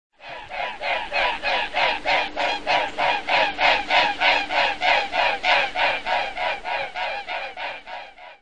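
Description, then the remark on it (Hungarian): A mute swan (Cygnus olor) flies past, its wingbeats making a loud, steady throbbing whoosh, about three pulses a second, sustained for several seconds with no voices. “Bütykös hattyú (Cygnus olor)”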